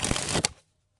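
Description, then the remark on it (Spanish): A deck of playing cards springs from one hand to the other in the card flourish called the lightning (relámpago), fanning like an accordion, in a quick, dense flurry of crisp riffling clicks, with a final snap, lasting about half a second before silence. “había dos movimientos con cartas que consisten en pasarse las cartas de una mano”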